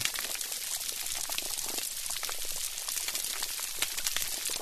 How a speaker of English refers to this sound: Now, it may just sound like some bubbling, but that's actually fish burping. But what's that crackling sound? Is it just the microphone? Are they near some underwater pocket spurting out air?